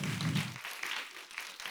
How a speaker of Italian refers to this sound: Insieme a voi sono felice di dare il benvenuto alla ventiduesima edizione di Pordenone Legge a Daniele Aristarco. Grazie di essere qui, gli facciamo un grande applauso.